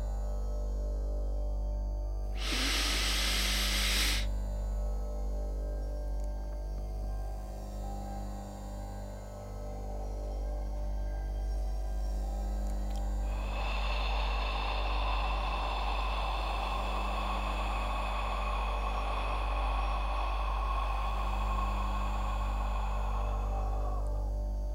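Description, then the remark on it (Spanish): A pranayama breathing exercise: a quick, deep breath drawn in through the nose, then about ten seconds of held breath in quiet before a long, slow, deep exhale through the mouth that hisses on for around ten seconds. No one speaks. “Repito, una inhalación por la nariz rápida y profunda, una retención de al menos 10 segundos y una exhalación lenta y profunda por la boca.”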